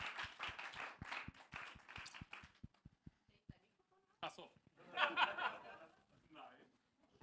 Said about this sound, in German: Und jetzt dürft ihr mit einem fetten Applaus meine hübsche Frau hier auf der Bühne nochmal begrüßen.